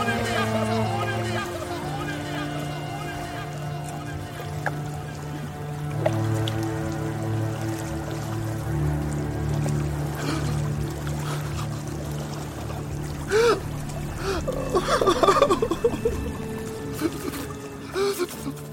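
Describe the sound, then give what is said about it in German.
Steady flowing water in a cartoon film scene runs throughout, continuous, with a soft sustained music score underneath and a few brighter splashing swells near the end. “Du hörst nur noch das Wasser fließen, es gibt so ein ganz bisschen Score und äh, man wird wirklich so zurückgelassen.”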